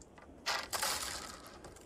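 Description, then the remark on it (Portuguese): Thin sticks from a game of Mikado (pick-up sticks) clatter and rattle against one another in a short burst of dry clicks, loud, then settle into a softer scattered rustle. No one speaks. “O teu palpite, Vanessa, é aquele jogo do Mikado.”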